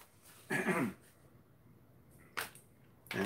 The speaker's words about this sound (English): I'm gonna cough.